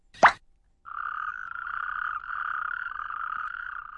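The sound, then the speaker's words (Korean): A quick springy plop as a toad leaps into an earthenware crock (jangdok), followed by the toad's steady, buzzing croak that trills continuously and fairly loudly for several seconds, with no one talking. “두꺼비가 펄짝 장독 안으로 뛰어들어갔어요.”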